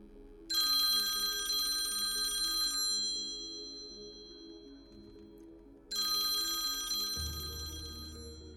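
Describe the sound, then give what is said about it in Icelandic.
A telephone bell at Geirfinnur's home rings in two long, bright bursts separated by a pause of a few seconds, clear, with no voices. “Hann aði varla stíðin um hurðina heima á sér þegar síminn ringdi.”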